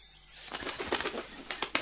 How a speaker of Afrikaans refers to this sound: Sy klap haar vlerke en vlieg weg.